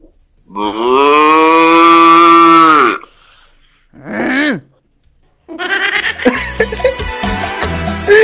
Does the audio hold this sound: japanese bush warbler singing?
no